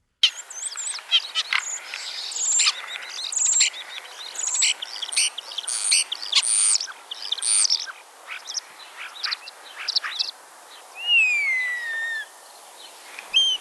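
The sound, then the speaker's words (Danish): A common starling sings a busy, rambling medley of clicks, chatters and squeaky notes, ending in a few drawn-out sliding whistles, clear with no one talking. “nu slår øh, en lille sløjfe på programmet ved at spille stæren til sidst”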